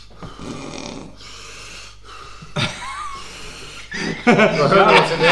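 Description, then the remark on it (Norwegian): A voice imitates the heavy, puffing breathing heard when playing back a phone video one has filmed: several loud, breathy huffs and gasps in an uneven rhythm, growing harsher and more forceful toward the end, with a hint of laughter. “Jævla plusting.”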